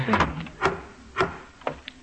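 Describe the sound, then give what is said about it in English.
A door in an antique shop being shut, heard as a short series of wooden clunks and knocks spaced over about two seconds, moderately loud, with no one talking. “Close the door”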